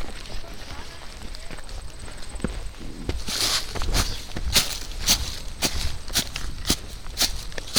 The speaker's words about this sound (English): So it sounds like Bigfoot's after me or something, because I hear your, because I hear your feet really loud.